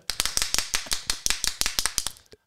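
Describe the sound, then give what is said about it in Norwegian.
A handheld clapper noisemaker rattles out a fast burst of about a dozen sharp, bright clacks, loud and slightly uneven in rhythm, with no voices, then stops abruptly. “altså, dette er jo djevelens verk. Det er, en, det er en klapper.”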